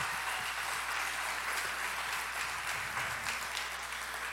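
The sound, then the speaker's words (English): A large crowd applauds a band steadily, a dense wash of many hands clapping that stays even and sustained throughout, with no voices on top. “Before the band is all gone, can you guys just thank them for leading us like that?”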